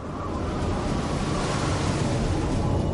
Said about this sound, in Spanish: Cuando el viento sopla sobre la superficie oceánica, surgen olas. Estas olas contienen mucha energía que podemos utilizar.